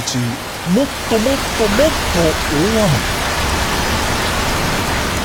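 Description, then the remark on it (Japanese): Heavy rain pours steadily in a dense, hissing wash that fills the whole stretch, with a voice briefly sounding over it near the start before the downpour continues alone. “晴れのち雨雨のち大雨大雨のちもっと大雨もっと大雨のちもっともっともっと大雨”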